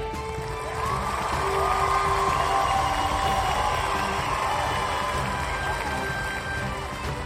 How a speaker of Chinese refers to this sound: 在众人的掌声中，我从镇长的手上接下了奖状。